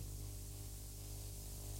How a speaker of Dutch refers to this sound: Hallo, hallo, hallo. Storing, storing of niet of wat?